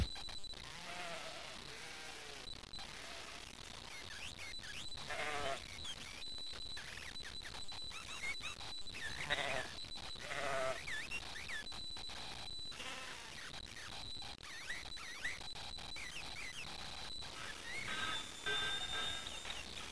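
A flock of sheep bleats in a continuous overlapping chorus, many wavering cries rising and falling at once over steady background hiss, with no pauses for the full stretch.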